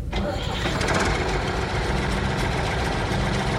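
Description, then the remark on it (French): A heavy diesel engine of a John Deere farm tractor cranks and catches, then settles into a loud, steady rumbling idle, with a dense low throb and no voices. “Oh, c'est un tracteur John Deere. On l'utilise pour les colons généralement pour tout ce qui est agriculture.”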